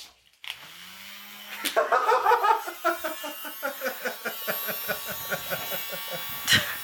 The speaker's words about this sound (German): Das ist ein kleiner Ventilator. Den habe ich von meiner Schwiegermama geschenkt gekriegt.